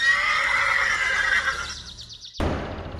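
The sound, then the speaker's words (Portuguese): A frightened bay horse rears up on its front legs near the finish line of a race, neighing loudly, a long shrill whinny that breaks into a quavering, descending trill, then cuts to a rough, noisy burst with no one talking. “Era a vitória certa, mas quando estava quase chegando na linha de chegada, o cavalo baio se assustou com alguma coisa empinou as patas dianteiras e.”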